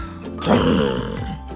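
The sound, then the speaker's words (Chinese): A voice imitates an angry elephant protesting through its trunk after a little lion bumps into its backside, a single loud, nasal, wavering blast that rises and bends in pitch over about a second and a half, with no words. “大象生气的用鼻子发出抗议的声音。”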